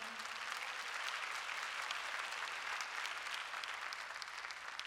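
crowd, audience clapping hands

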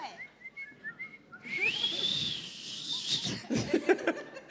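human body sound, person attempting to whistle

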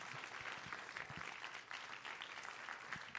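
crowd, audience applauding

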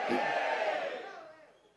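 crowd, audience shouting

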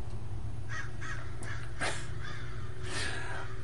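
bird, crows cawing

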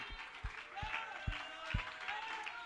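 crowd, audience applause and shouting

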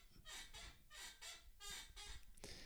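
household object, creaking chair

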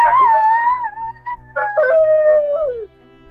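sound effect, wolf howling in pain

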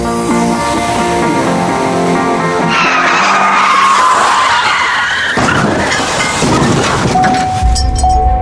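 vehicle, car skidding

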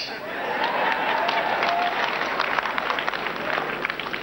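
crowd, audience clapping

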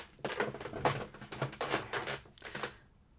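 household object, chair creaking

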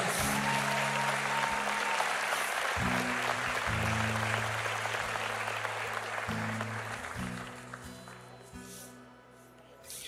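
crowd, audience applauding

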